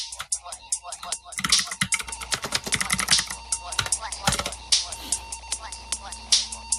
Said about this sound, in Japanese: キーボード音強い。いや、今カタカタってしたのに、ちょっとキーボード、キーボードじゃない、これでは出てこなかったですね。